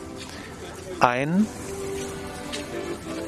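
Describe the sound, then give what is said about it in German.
A faint accordion holds a steady, droning note outdoors, played by an older man wearing a captain's cap on a sunny day under a clear blue sky with gulls flying about, with light ambient noise around it and a brief spoken word near the start. “Der Akkordeon spielt und da wollen wir jetzt erstmal hin, bevor wir zur Fähre gehen.”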